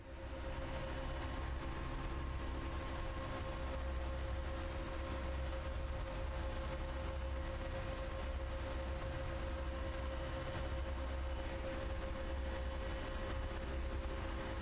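Heavy machinery in an engine room full of pipes, ducts, motors and machines running at full power drones loudly and without pause, a deep steady hum with a layer of mechanical rumble and hiss. No one speaks.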